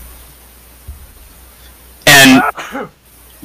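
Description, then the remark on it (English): A single loud, sharp sneeze bursts out, trailing into a brief throaty vocal sound. The rest is quiet, with one short spoken word. “bless you.”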